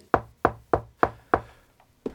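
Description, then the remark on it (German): Someone knocks on a door, five firm, evenly spaced raps followed by a short pause and one more knock. The knocking is clear, with no voices. “Es klopft. Zum zweiten Mal.”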